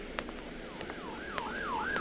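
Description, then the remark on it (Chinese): A police siren wails in repeated rising-and-falling sweeps, growing steadily louder over a low background rumble, with a few faint sharp clicks early on and no voices. “奇怪，为什么会有警车啊？是发生什么意外了吗？”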